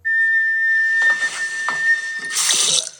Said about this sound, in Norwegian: Det er vasken. Hæ? Det er rørene. Plystrerør? Ja, det er sånn rør, rørene lager lyd.